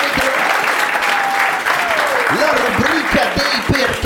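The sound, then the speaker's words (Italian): Children clap in a steady, dense burst of applause for an applause meter ('applausometro') introducing a 'why' segment, with excited high-pitched shouts and squeals rising above the clapping throughout. “Applausometro! Applausometro!”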